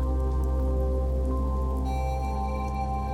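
nature, rain falling

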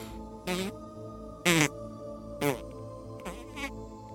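human body sound, quiet

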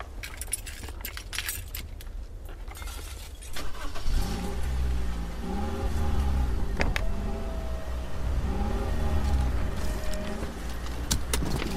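vehicle, car driving

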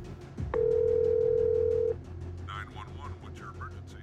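sound effect, telephone dial tone

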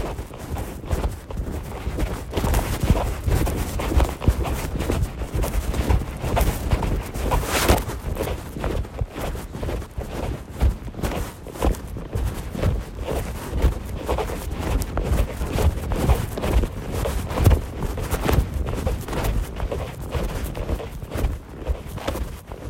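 nature, footsteps crunching on snow

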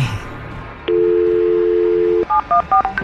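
signal or alarm, telephone keypad dialing tones

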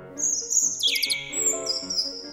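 bird, small bird singing

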